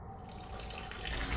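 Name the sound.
running tap water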